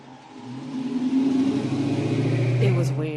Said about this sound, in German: An diesem Morgen geht es recht zügig. Ein Autofahrer nach dem anderen rollt heran und füllt die leeren Sitze mit Pendlern auf. Der Erste in der Reihe ruft, wo es hingeht, dann wird entsprechend nachgerückt.